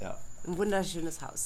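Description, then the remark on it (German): Crickets chirp at night beside a house pool in Orlando, in a steady, thin, high-pitched trill that runs unbroken in the background while a person speaks over it. “Aber ihr wisst schon mal, wir sitzen hier gerade, ja. hören die Grillen zirpen, sitzen vor unserem Pool.”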